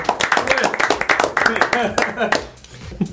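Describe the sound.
A few people clap in a quick, uneven patter for a couple of seconds for a guest, the only woman present that evening, while voices talk and cheer over it, then the clapping fades out.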